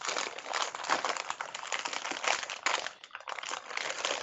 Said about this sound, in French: C'est qui qui est en train de jeter du papier en tout cas.